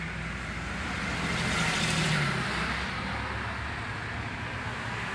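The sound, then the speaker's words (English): Steady roar of road traffic with a vehicle swelling louder as it passes by around the middle, then fading back into the continuous hum of cars on a busy road. “I don't know how these things are on the fucking road.”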